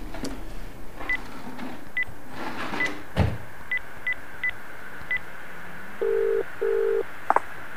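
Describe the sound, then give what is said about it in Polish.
A phone being dialed to call back a worker who had texted: a series of short, evenly spaced keypad tones, followed by two longer ringback-style tones and a brief click, all fairly clear over a faint background hum. “No, odzwaniam”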